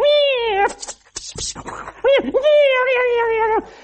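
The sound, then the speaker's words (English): A man's voice imitates two cats fighting in an alley in the middle of the night, letting out two long, wavering yowls with a short burst of hissing and sputtering between them, loud. “They're like two cats in an alley. You ever heard in the middle of the night,”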